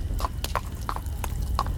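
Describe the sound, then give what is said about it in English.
Horse hooves clomp at an even, unhurried pace as a horse-drawn carriage moves away down a trail into the woods, about six distinct hits, over a continuous low rumble and rattle of carriage wheels, with no voices. “The horse began to move. I heard it clomping away and the carriage rattling.”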